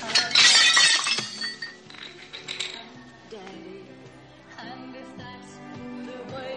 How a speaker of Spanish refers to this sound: se levanta tirando del bolso y arrojando al suelo su taza.